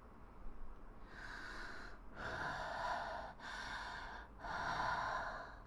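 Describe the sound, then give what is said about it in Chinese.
Slow, heavy, raspy breaths of a carrot monster, heard late at night, with an eerie, monstrous quality: four long drawn-out breaths in a steady rhythm, each a loud, hissing rush of air with no talking. “一种呼吸声，可怕的胡萝卜颜色的呼吸声，在那里。”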